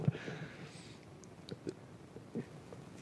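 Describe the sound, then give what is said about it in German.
A pen is set down on a table, giving a few light taps and clicks spread over a few seconds against a quiet background, with no talking. “Also, ich wollte meinen Stift ablegen”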